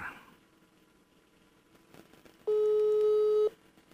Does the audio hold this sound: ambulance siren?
no